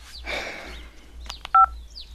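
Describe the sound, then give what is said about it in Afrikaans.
A phone keypad being dialed: a couple of soft button clicks, then one loud, short dual-tone beep, over a faint low hum with a brief rustle at the start. “Bel hom, Paridon.”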